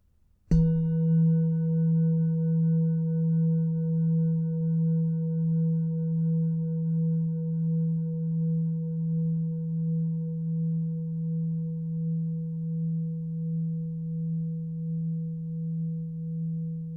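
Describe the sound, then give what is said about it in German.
A single deep meditation gong is struck once to mark the end of a meditation and rings on alone, its warm humming tone pulsing gently as it slowly fades over many seconds with no voices. “Und wenn du den Gong hörst, dann bereite dich darauf vor, die Meditation zu beenden.”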